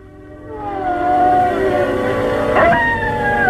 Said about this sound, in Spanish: Se estremece al escuchar un tétrico aullido. ¡Un lobo! Palidece. Tiembla. Mira a su alrededor tratando de saber dónde está el enemigo. Es difícil saber dónde está entre la niebla. Y parece que son muchos. Se están acercando.